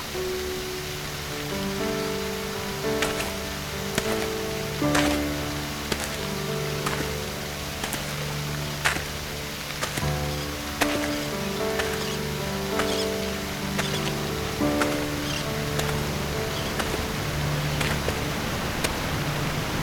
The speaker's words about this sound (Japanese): だんだん滝の音が大きくなってきたね